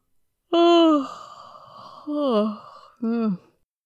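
A man's voiced yawn stretched into three parts: a long, loud opening groan that trails off breathily, then two shorter rising-and-falling moans, with no words spoken.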